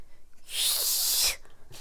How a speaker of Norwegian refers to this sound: Har du hørt min fløyte? Ja, men jeg kan gjerne høre den igjen. Akkurat som ei fløyte skal høres ut.